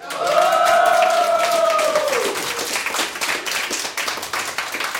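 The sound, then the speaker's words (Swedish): At a Radio Total Normal broadcast from the Fountain House clubhouse at Götgatsbacken 38, an audience bursts into steady applause, dense clapping that carries through the whole stretch, with a loud sustained whistle or whoop sliding downward in pitch over the first couple of seconds. “Får vi höra att vi har en massa publik här också?”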